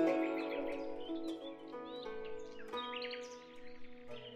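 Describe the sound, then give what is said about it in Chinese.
Birds chirping in spring by a small courtyard with blossoming peach trees, quick, high, scattered calls over a bed of steady, sustained tonal sound, moderately loud throughout with no talking. “闻着花香，听着鸟鸣，一卷诗书就是山水诗篇。”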